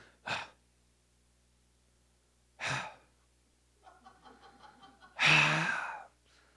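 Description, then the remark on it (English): A voice imitates a child's grunting from the back seat of a car: three short, breathy grunts spaced a couple of seconds apart, the last one louder and longer, with a softer strained murmur just before it. “All right, I'm probably bad parenting moment, but at this point, it's just like how many how many grunts am I gonna get before they finally say something?”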